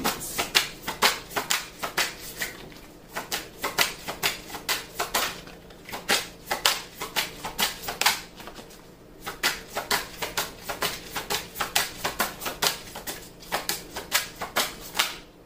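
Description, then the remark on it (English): Tarot cards being shuffled and drawn, a steady stream of rapid, crisp flicks and clicks lasting the whole stretch with brief pauses, and no voices. “May I have a card, please?”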